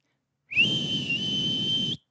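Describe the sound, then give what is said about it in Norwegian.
A person sitting with a dog in front of them and cheese in hand whistles a single long, steady recall signal held for about a second and a half, fairly loud, with a breathy, airy rush beneath the tone and no talking. “Og så plystrer jeg min plystrelyd.”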